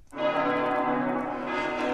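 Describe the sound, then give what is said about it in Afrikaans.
A church bell rings out on a Sunday with one strong, sustained toll, its rich overtones humming steadily for the whole moment. It sounds fairly loud, with no voices. “Sondag staan hulle op wanneer hulle die kerkklokke hoor lui.”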